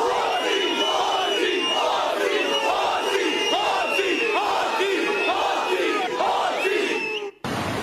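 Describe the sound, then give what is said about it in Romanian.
A large crowd shouts together in a loud, rhythmic chant, repeating the same phrase again and again with a steady beat, sustained for several seconds before cutting off abruptly. “Iar aici, plin de emoții, strigăm cu toții”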